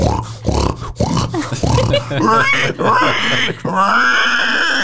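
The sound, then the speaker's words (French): A man's voice imitates pig grunts and squeals, a rapid run of loud, gravelly snorts that rise into higher squealing tones toward the end, with no pauses between them. “Putain, tu fais trop bien le porc.”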